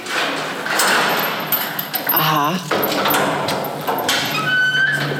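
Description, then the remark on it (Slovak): A heavy, huge old castle door creaks open amid metallic clanking and rattling of a chain on the door, with a brief murmur of voices, as the way into the castle's Chinese hall is opened. “Čínska sála sa píše na dverách to bola reťaz na dverách”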